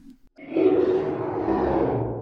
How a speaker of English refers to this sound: Um I think I gotta sneeze.